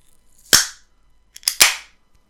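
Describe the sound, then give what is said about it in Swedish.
An aluminium beer can is cracked open: a sharp pop with a short fizzing hiss, then a small click and a second louder pop-and-hiss a second later. No talking. “Vi människor är naturvarelser och öl är en mycket naturlig brygd. Aluminium förekommer i naturen.”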